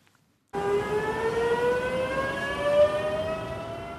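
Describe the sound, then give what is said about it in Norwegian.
A train filled with travellers carrying backpacks and suitcases pulls away from a platform at Oslo S (Oslo Central Station), Norway: a steady, loud rumble begins abruptly, with a tonal electric motor whine that slowly rises in pitch as it gathers speed. No voices. “Enda et tog forlater plattformen på Oslo S, fylt opp med reisende med ryggsekker og kofferter”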